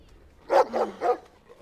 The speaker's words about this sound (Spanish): De pronto un perro salvaje aparece ladrando con furia rábica por el ventanal que lo separa. ¡Cállate! ¡Cállate!